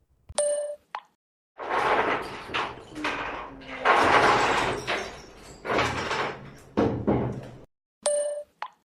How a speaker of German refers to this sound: Man hört am Ende, wie selbst noch der Behälter der Stifte auf den Boden fallen gelassen wird und in diesen sechs Sekunden, in dem alles runterfällt und du denkst, das ist nicht dein Ernst.